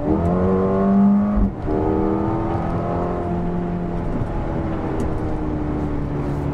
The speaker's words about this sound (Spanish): solamente cuando llevamos el coche a los programas más deportivos vamos a poder escuchar el sonido del motor claramente en el interior, en aceleración.